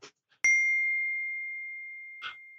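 Glasses of lager clink together once in a toast, a sharp strike that leaves a bright, high ringing tone slowly fading over about two seconds, with a couple of soft rustles around it and no talking.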